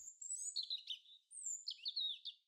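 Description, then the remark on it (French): A blackbird calls in two bright, warbling bursts separated by a short pause, its high chirping notes clear, with no voices or other sounds around it. “Le merle insiste.”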